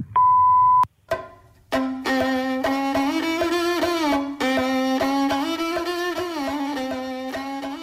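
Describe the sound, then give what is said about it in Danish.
A telephone answering machine beep: one loud, steady electronic tone lasting under a second, then a click and a sustained, melodic harmonic sound that carries on to the end. “Hello, please leave a message after the tone.”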